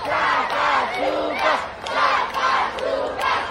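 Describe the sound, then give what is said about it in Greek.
A large crowd on Corfu chants a name in unison, a loud rhythmic call repeated in steady waves, many voices roaring together with no single speaker standing out. “Όλο το νησί βροντοφωνάει το όνομά σου.”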